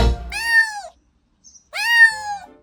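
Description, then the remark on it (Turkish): A cat meows twice, each call drawn out and rising then falling, with a short pause between. The meows are clear, with no talking. “Bugün Dünya Kediler Günü.”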